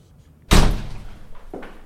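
The entrance door of Resteriet Coffee, a coffee roastery, bangs shut with a loud impact that rings out briefly, followed by a softer knock or latch sound a second later.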